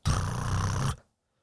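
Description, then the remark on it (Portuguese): A short, loud drum roll lasting about a second, a rapid rattling burst that is probably a voice imitating it with a rolled, growling sound, then abrupt silence. “Aí, fizeste mesmo, puto. Aí os rubos.”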